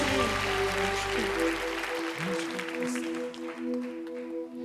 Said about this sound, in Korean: 이 모든 것을 가능케 하시는 주님의 은혜와 사랑의 십자가의 그 능력에 우리의 마음을 다한 박수를 올려드립니다